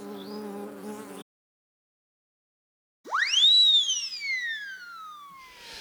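A steady bee buzz drones for about a second and cuts off. After a pause, a bright swooping tone rises and slowly glides downward. No one speaks.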